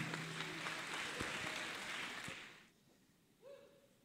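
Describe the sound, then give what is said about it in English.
An audience breaks into steady applause to appreciate young leaders, a dense wash of clapping that holds for a couple of seconds before fading out, followed by a brief tone as quiet settles in. “Please put your hands together in thunderous applause to appreciate our young leaders.”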